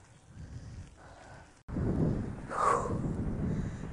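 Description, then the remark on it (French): Steady low rumbling wind buffets a microphone while cycling, cutting out for an instant before returning stronger and gustier, with a brief brighter whoosh partway through. No voices are heard. “Franchement, la sensation du vent qui te fouette littéralement le visage, c'est pas mal.”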